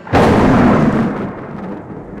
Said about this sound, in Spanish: Como un trueno feroz que presagia la tormenta, aquella voz de Orfilia.